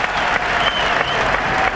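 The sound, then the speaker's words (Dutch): A large crowd at the Olympic Games swimming arena applauds a Belgian swimmer from Roeselare who won a gold medal with a world record, a dense, steady roar of clapping that holds at an even, loud level throughout with no pauses. “Applaus op alle banken voor deze man uit Roeselare.”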